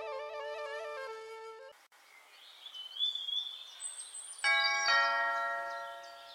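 A melodic electronic doorbell chime at a house in Andheri West plays a short stepped tune, then birds chirp softly before the chime rings again with a sustained ringing tone. No one speaks.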